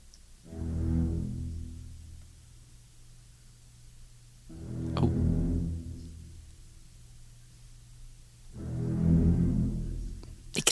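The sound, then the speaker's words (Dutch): Ominous, low orchestral music from a shark film theme: three slow, heavy swells of deep brass and strings, each rising and fading in turn, with no voices. “krijg er altijd spontaan schrik van als ik deze muziek hoor.”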